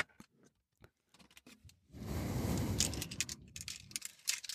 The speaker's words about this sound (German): Genau, der Schlüssel liegt in meinem Handschuhfach, da greife ich jetzt einmal kurz rüber.